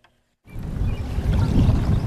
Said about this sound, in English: I'm floating on a boat in the middle of Blind Bay, I can see green river grass waving back and forth in the shallow water beneath me. There's a flock of geese paddling nearby. Occasionally, one of them dives down for food.